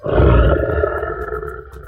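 A lion roars once, loud, a deep rumbling growl that swells at the start and trails off over about two seconds.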